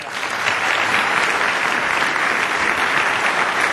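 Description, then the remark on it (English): A room full of people claps steadily for Canadian Football League commissioner Mark Cohon, a dense, even wash of applause that stays loud and sustained throughout without any voices rising above it. “Uh, let's hear it for the commissioner of the Canadian Football League, Mark Cohon.”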